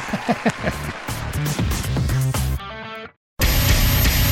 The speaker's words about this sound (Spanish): Y una ovación.